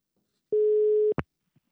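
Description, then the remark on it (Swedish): A single steady telephone ringback tone of an outgoing call to a singer sounds clearly for about half a second, followed by a sharp click as the line connects. No one speaks. “Jag ringde upp ….”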